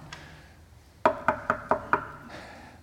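Five firm knocks on a door in a quick, even rhythm, fairly loud, with quiet background before and after and no one speaking.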